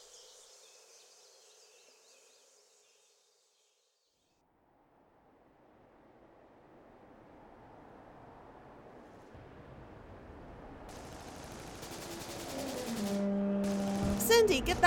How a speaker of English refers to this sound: Several minutes later, the stillness of the mire was broken by the deafening sound of a small tactical nuclear explosion.